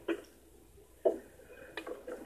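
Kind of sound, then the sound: impact, knocking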